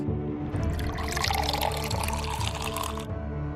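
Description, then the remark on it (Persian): Water from a spring of knowledge pours steadily into a glass for a few seconds, a bright splashing flow that begins abruptly and cuts off near the end, with no voices. “اودین رفت پیش میمیر بهش گفت یه لیوان از این آب بده به من از راه رسیدم خیلی تشنم”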